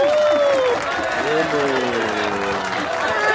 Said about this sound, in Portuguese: Sejam bem-vindas com as nossas palmas de pós-produção,